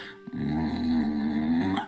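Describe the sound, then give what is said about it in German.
A wolf growls softly in one low, steady rumble lasting about a second and a half as it flattens its ears and crouches lower, alone with no voices, and cuts off abruptly. “Und dein Wolf, du siehst, wie die Ohren sich anlegen, wie er ein bisschen tiefer geht. Du hast so ein leises.”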